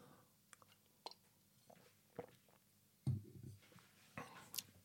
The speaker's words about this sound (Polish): Łyknę sobie kawę, przepraszam.